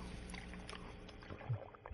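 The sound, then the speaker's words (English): Water pours into a glass with a steady, soft trickling splash, followed by two short low gurgles like gulps of drinking. No one speaks. “You should um, drink some water. I always have a oh, glass.”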